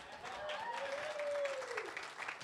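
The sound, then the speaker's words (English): A room full of people at a church service claps steadily for a couple of seconds, a dense, even patter of many hands, with a faint sustained voice-like tone drifting through the middle. “Uh, it's nice having the elementary in here because you get a lot more clapping as you're preaching, too.”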